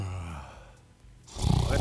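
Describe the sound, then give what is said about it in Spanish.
A drawn-out, low, voiced yawn sound effect played in the background, trailing off into a brief quiet, followed by a louder breathy rush of exhaled air. “Ya te ponen bostezo de fondo y todo.”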